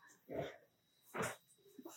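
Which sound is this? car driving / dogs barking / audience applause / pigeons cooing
dogs barking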